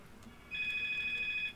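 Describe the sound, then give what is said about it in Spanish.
A phone rings with a single steady, high electronic tone lasting about a second, fairly clear over a quiet background with no talking. “oh, perdón, teléfono.”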